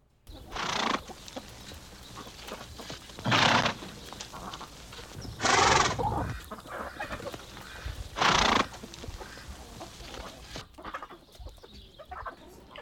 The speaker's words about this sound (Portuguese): Ele disse assim: Mãe, vou colocar o cavalo lá no quintal.